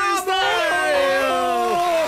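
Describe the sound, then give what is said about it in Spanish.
Loud cheering from several voices, with drawn-out whoops that slide gradually downward in pitch over a steady, noisy wash of applause, lasting about two seconds without a break. “Qué el aplauso.”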